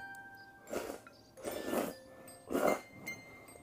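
Wet slurping and chewing in three distinct bursts, about a second apart, over a quiet steady background hum with no talking: someone eating ramen noodles.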